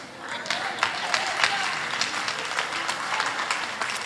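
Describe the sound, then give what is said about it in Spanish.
An audience applauds steadily, a dense crackle of many hands clapping at a fairly even loudness for about four seconds, with faint murmuring voices mixed in. “Claro, ustedes aplauden.”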